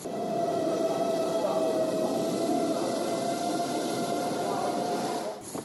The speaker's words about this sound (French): Il est 9h40 et je sors de chez moi pour prendre le métro Léo Lagrange. 9h45. Je suis arrivée au métro. Je prends la ligne 7 du Tolbiac où se trouve la librairie.